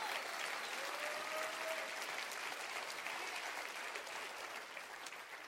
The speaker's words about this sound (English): Clap your hands real big for that.